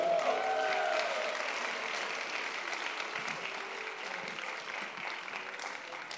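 Sustained applause from a crowd, dense clapping that holds steady for several seconds at a fairly loud level, with a faint tonal hum early on and no talking over it.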